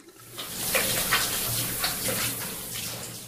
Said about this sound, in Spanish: No, chato. Es aquí, en el baño del pasillo. ¿Dejaste abiertas las llaves? ¿Cómo crees? Es la regadera. Clarito se oye cómo está corriendo el agua.